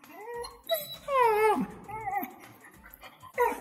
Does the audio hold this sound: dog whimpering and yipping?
yes